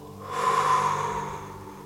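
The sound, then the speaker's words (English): A single deep, airy exhale during a guided breathing exercise, clearly audible, swelling quickly and then tapering off slowly over about two seconds, with no talking. “Feel the chest gently opening, and then let go of the exhale.”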